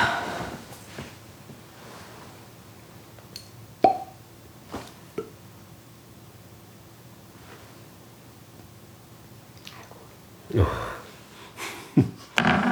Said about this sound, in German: So, darf ich die jetzt aufmachen, die Flasche?